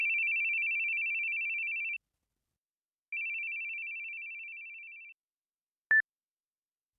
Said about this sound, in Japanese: くそ。リオンのやつ気づいてるのに電話に出ないな。